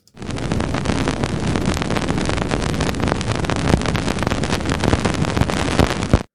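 Dense, steady crackling hiss of countless tiny clicks and pops, dust grains hitting a measuring surface of the Cassini spacecraft as it flew through the Janus-Epimetheus ring in December, resembling rain. It stays loud and continuous throughout, with no voices.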